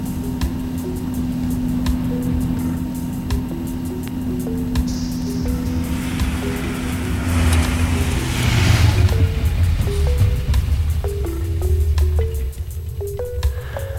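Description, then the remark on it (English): A car engine hums steadily, its pitch dropping as the vehicle slows and pulls up at the old place, Elm Hall, then settles into a low, rumbling idle for the last few seconds. No one speaks. “Well, don't just sit in the car”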